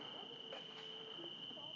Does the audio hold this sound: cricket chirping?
yes